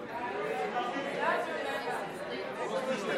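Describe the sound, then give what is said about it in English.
A church audience murmurs and chatters all at once in response to being told everyone coming to church by eight next Sunday will get one million naira, a steady, fairly loud wash of overlapping voices, swelling slightly midway before settling. “Did I hear somebody say they will sleep here?”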